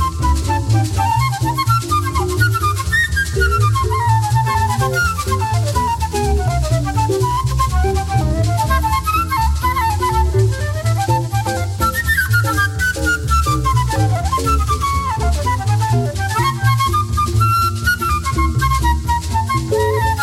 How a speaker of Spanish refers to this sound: su maravillosa flauta y su flauta baja